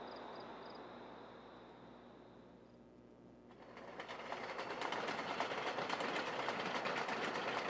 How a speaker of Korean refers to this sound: 나흘 후 홈즈와 나는 다시 기차를 타고 윈체스터로 향했다.